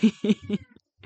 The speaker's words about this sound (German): Wenn ihr meine Katze im Hintergrund hört, die ist heute sehr laut irgendwie.